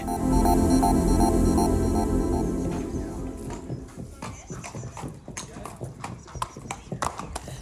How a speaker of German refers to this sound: Wir sind im Gestüt Röttgen im Rennstall von Trainer Markus Klug.